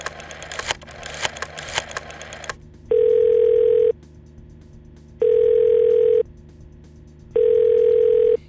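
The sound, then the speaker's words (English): A telephone ringback tone sounds three times, each steady buzzing ring lasting about a second with pauses between, and nobody picks up. It follows a brief burst of crackly clicking and rattling handset noise. “Jay recorded his son's information and set about calling the goober's son.”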